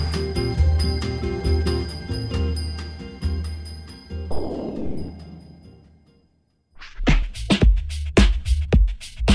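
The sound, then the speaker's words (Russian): Small bells jingle brightly within a busy musical passage, ending in a shimmering shake that rings out and fades to silence before a few sharp percussive hits. “эти финальные колокольцы.”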